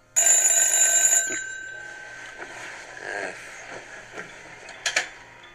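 A telephone rings once, a loud, bright electronic trill lasting about a second, followed by quiet room noise with a few faint shuffles and murmurs.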